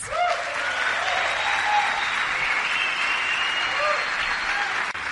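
Sustained audience applause welcoming a businesswoman onto the stage to tell her business success story, a dense steady wash of clapping that stays loud and even throughout, with a few faint whistles or cheers mixed in.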